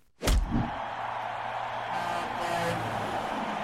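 A sharp, loud hiss-like burst of air brakes opens, followed by a steady bus engine rumble that idles on with a broad noisy wash for several seconds.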